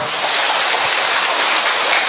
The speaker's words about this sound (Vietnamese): hallelujah một tràng pháo tay thật to thưa anh chị em.